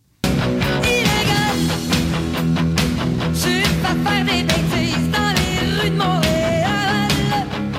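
A loud, dense rock track plays continuously after a brief silent start, with driving guitars, steady drums and a strong vocal line riding on top throughout.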